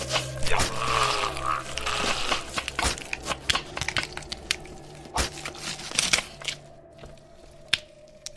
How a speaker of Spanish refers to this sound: El crujido de sus huesos se hacía cada vez más fuerte y más fuerte